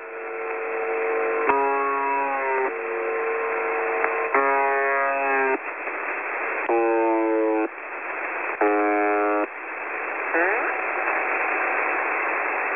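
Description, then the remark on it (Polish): Narrow, hissy shortwave radio static carries a harsh, glitchy buzzer from a shortwave radio station, recorded when the buzzer briefly broke down within the last 10 years. It comes in uneven bursts of about a second each, stuttering and wavering in pitch instead of droning steadily. “w przeciągu ostatnich 10 lat doszło do sytuacji, że Brzęczek się uszkodził.”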